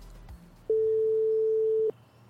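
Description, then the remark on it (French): A telephone busy tone on a call to the speaker's brother: a single steady, mid-pitched beep holding for just over a second, loud against faint background hiss, with no talking. “Ouais, salut monsieur, je vois que t'es euh, es encore occupé.”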